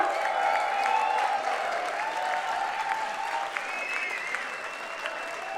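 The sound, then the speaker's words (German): Sustained applause from a concert audience at the Musikbrauerei, a dense, steady wash of clapping that holds at an even, fairly loud level throughout, with faint crowd cheering woven in. “Macht doch mal einen ganz großen Applaus.”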